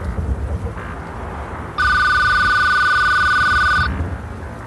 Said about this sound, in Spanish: De pronto el teléfono sonó.